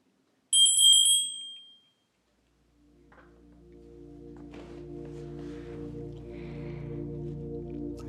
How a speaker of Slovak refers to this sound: Takže odštartujeme to zvončekom alebo jeho zvukom zvončeka.